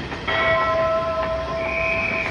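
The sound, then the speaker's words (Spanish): A train arrives with a steady, high-pitched metallic whine that holds for a couple of seconds, shifting pitch partway through, over a low rumble of rail noise. “El día y la semana se dividían antes y después de la llegada del ferrocarril”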